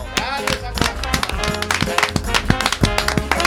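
A burst of applause, with many sharp, irregular claps running steadily throughout over a busy background of voices and tonal sounds.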